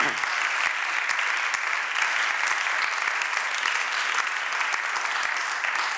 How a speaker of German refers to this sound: Und geben wir auch ihnen einen kräftigen Applaus, einfach auch für das, was sie tun.